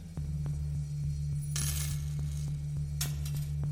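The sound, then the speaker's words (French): A hard plastic DVD case holding an animated film clatters to the floor in a nearly empty video rental store, followed a moment later by a short, sharp crack of the disc breaking beyond repair, over a steady low electrical hum. “Elle attrape des boîtiers, mais fait tomber son film d'animation préféré. Le CD est brisé et irrécupérable.”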